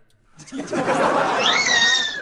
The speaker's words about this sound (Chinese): 啥玩意儿？你家猫你踩着猫了？